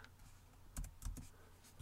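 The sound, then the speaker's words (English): A few quiet, irregular keystrokes tapping on a computer keyboard as someone pulls up NFL games for reference, with short clacky clicks and brief pauses between them and no voices. “Don't mind my typing.”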